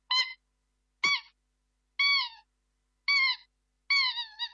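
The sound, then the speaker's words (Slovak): A deer call imitates a roe fawn crying when abandoned by its mother, used during the roe deer rut: five short, high, plaintive bleats, evenly spaced about a second apart, clear with silence between and no talking. “Potom sa vavničky používajú ešte aj, keď je srnčia ruja, tam sa dobre dá napotiť srnec alebo srna a tedy má takú vavničku ako srnča, keď pláče napríklad opustí pomátka a ona pláče,”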